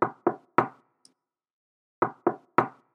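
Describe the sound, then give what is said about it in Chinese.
Two sets of three firm knocks on a door, each set quick and evenly spaced, separated by a short pause; a faint tiny click sits in the gap. No voices. “这时候，有一只坏坏的大野狼来了，他跑到了猪大哥的家，并且敲敲门，”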